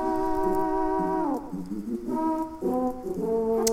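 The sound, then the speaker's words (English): A voice imitates a deep, blaring horn in long sustained blasts, like a frog puffing its cheeks along to music as if blowing a big horn, with a pitch slide downward partway through before the loud honking tones resume, continuous, no speech. “and he's kind of like puffing along to the music as though he's he's blowing a big horn, but he's not.”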